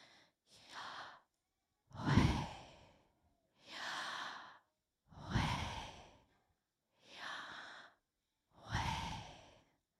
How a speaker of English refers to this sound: So instead of speaking it, the people would simply breathe. We make the sounds of those consonants when we breathe in.